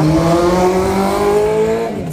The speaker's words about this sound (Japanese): すごい怖い怖いねあのねバイクのバイクの音がねすごい苦手なんですよ私。